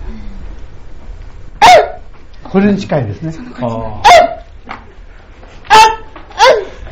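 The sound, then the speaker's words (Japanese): A person imitates a red fox's bark with several sharp, yelping calls spaced a second or so apart, mixed in with nearby conversation. “あのねキキツネの本当の声はね、うん、はい、キツネはコンテナってなうでしょ、うい、犬の声に近いですねああね”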